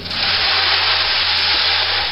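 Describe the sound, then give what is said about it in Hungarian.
A rain machine sound effect of the kind used in radio plays: a steady, loud, dense hiss like heavy rainfall, continuing without a break and with no voices over it. “Ez például, gondolom a kedves hallgató is fölismeri, akkor rádió is rá legyen, akkor ez az esőgép”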